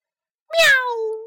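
A single loud meow from Wilbur the cat, crying out in fright and jumping back, starts abruptly after half a second of silence, bright and harmonic at first, then sliding gradually lower in pitch as it trails off.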